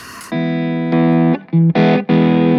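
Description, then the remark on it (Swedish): Electric guitar through a new prototype overdrive pedal set a little cleaner, a fairly clean, lightly crunchy tone, playing about five sustained notes and chords in succession, loud and on its own without any talking. “Och sen så till slut så har jag då den nya prototypen som jag har ställt kanske lite cleanare.”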